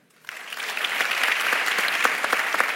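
An audience claps steadily, a dense wash of many hands starting abruptly after a brief moment of quiet and holding at an even, moderately loud level throughout.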